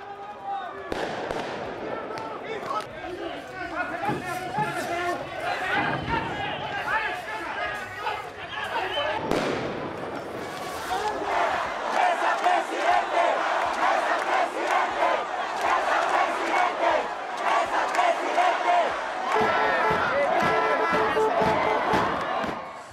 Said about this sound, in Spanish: escuchamos en el audio que la situación es tensa, lo que gritaban los manifestantes es Mesa, presidente